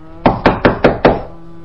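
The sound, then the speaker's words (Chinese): Five loud, rapid knocks on a door in a steady, even rhythm, each a sharp thud with a short ring-off, followed by quiet. No one speaks. “他走到了门口，就停了下来，然后咚咚咚的开始敲门从刚开始的很小声敲，慢慢的到后面越来越大声。”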